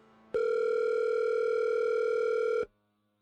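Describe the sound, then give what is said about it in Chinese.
A steady telephone tone heard while a phone call is being dialled hums loud and unbroken for a little over two seconds, a single sustained pitch with bright overtones, starting and stopping abruptly with no voices. “王若曦拨通了赵磊的电话。”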